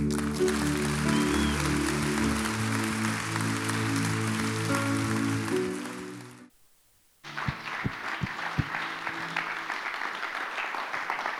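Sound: audience applause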